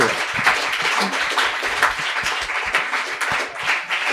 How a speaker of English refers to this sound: and one other thing I want to do is give a round of applause to the Soho House. They've been incredible in working with us. So thank you.